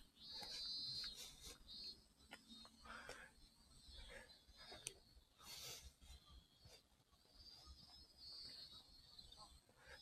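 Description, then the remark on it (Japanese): Faint, far-off cicadas buzz in a thin, high drone that swells at the start and returns near the end, set against strong, gusty wind and scattered background noise at Yoichi harbor in Hokkaido, Japan, in late summer after 4 o'clock. “あ、セミの声が、ちょっと遠くですが、聞こえてきます。”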